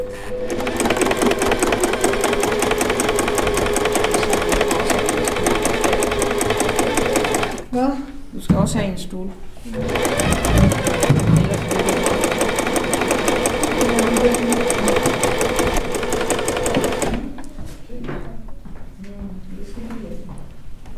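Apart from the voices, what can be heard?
sewing machine running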